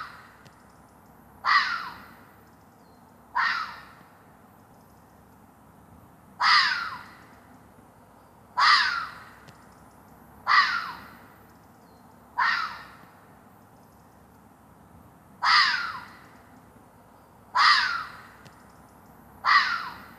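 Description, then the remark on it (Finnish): A red fox barks repeatedly, nine harsh, hoarse calls spaced roughly two seconds apart, loud against a quiet background with a low rumble, at 5:50 in the morning on 16 July. “Joo, kettu.”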